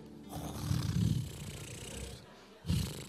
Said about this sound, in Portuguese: Ainda ronco.